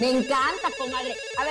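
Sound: telephone ringing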